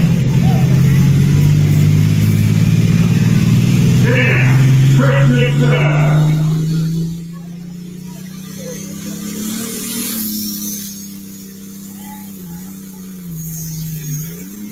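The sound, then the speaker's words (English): A tractor engine revs hard under load on a tractor pull track at West Point, its deep droning pitch climbing steadily for about seven seconds, then dropping off and settling into a quieter, steady rumble with slight surges. “That was actually the first pass I made with the tractor that I had a tach.”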